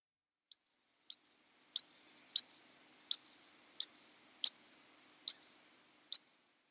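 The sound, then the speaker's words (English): A white-crowned sparrow's sharp pink call notes, nine bright high chips repeated at a steady pace about every two-thirds of a second, clear against silence. “Then it's the white crown pink.”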